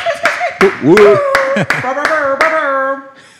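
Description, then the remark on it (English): Around seven sharp hand claps in a steady, even rhythm, each a crisp loud smack, made by one person clapping for everyone present because the others are holding handheld microphones, sounding over voices that whoop and sing along in the background. “Most people have got handheld mics today, so I had to clap for everyone there, but they, they no one means any um, any disrespect.”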